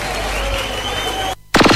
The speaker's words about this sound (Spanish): Un fuerte aplauso para Gustavo Santolaya, que tiene mucho que ver con esto.